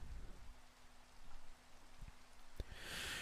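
Steady rain patters down continuously, a dense hiss with scattered drops tapping, swelling slightly louder toward the end. No voices are present.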